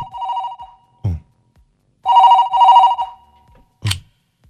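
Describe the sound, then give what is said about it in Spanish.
A telephone rings with a loud, warbling electronic tone for an incoming call from a federal prison: one ring, a short gap, then two rings back to back, with brief low thumps between them and no talking. “Claro, tenemos una llamada al final ahí.”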